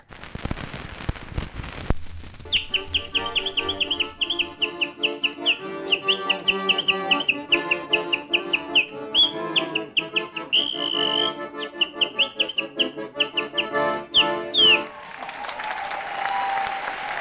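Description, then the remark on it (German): A person whistles a rapid, warbling birdsong imitation, full of quick chirps and trills, with a steady rhythm running underneath, then applause breaks out at the end. “Stattdessen reisen sie bis nach Istanbul, um dort auf dem Markt künstliche Vogelpfeifen zu kaufen.”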